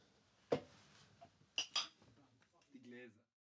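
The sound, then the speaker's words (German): A few bright clinks of a big ice cube knocking against a glass of Havana Club rum, one sharp tap then a quick pair, followed by a short stretch of talk. “Havana hier. Club. Richtig schön mit einem Eiswürfel drin.”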